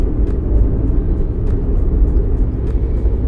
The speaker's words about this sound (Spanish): Perdón, es que se metió un pinche carro. Y pues no mames, me dio miedo la verga.